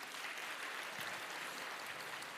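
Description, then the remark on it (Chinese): A crowd at an Easter church service applauds steadily to welcome first-time attendees, a dense, even patter of many hands clapping at once with no voices over it, holding a constant level throughout. “非常欢迎你们，给他们一个热烈的掌声。”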